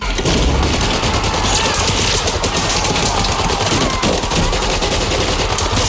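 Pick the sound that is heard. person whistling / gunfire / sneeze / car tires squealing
gunfire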